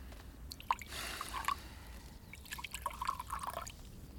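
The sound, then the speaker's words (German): Cognac pours into a glass in quiet gurgles and trickles, two short bursts of liquid with small drips and glugs between them, and no voices. “Ich nehme noch einen Cognac.”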